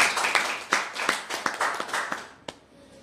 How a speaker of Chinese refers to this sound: 给这么棒的产品一个掌声，谢谢。